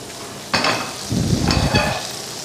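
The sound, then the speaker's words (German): A pan of Nockerl sizzles steadily with a hiss of frying, joined by louder bursts of crackling and some stirring or scraping noises, with no one talking. “Da drüben brutzelt die nächste Pfanne für den Nockerl.”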